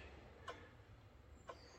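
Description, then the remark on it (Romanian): A clock in a monastery on the Holy Mountain, showing Byzantine time, ticks twice, exactly one second apart, each tick a crisp click over a low, steady background hum. No one speaks. “Și bineînțeles ceasul care ne arată ora bizantină.”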